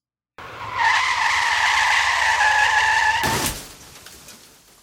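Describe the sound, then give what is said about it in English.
A small car's tires squeal in a long, loud, steady skid for about three seconds, then end in a sharp crashing impact as it runs into a stopped car, ringing out and fading. “The small car came to a halt very suddenly having run directly into a stopped car.”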